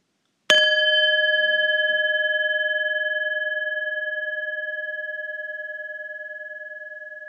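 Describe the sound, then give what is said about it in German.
A single gong stroke: one sharp strike that blooms into a clear, steady metallic tone with bright overtones, ringing out alone and fading very slowly over several seconds. “Mein Vorschlag wäre, auf jeden Fall mal einen Gongschlag lang.”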